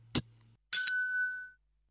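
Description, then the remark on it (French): A small hand bell is played on Radio EMF, struck with a quick second strike right behind the first. Its bright, high ringing tone holds and then fades out over under a second, preceded by a brief click. “Jouez donc de votre clochette.”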